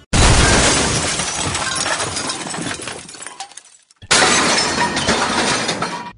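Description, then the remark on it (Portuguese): Two loud crashes of breaking glass and smashing objects as things are thrown out of a window: the first a long clattering shatter that trails off, then a second sudden burst of shattering. No voices. “jogando as coisas tudo pela janela.”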